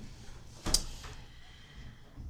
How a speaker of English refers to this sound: Close the door, please. Close the door. We're almost done. Close it. Close it.